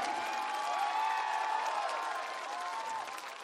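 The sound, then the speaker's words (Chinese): An audience applauds steadily, dense clapping mixed with scattered cheers and whoops, holding at a fairly even loudness before easing off slightly at the end; the applause is dedicated to the performer's dancers, who flew in from Hong Kong. “想借你们的掌声，送给我所有的 dancers，从香港特地飞过来的，谢谢。”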